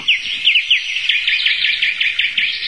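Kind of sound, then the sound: bird, small birds chirping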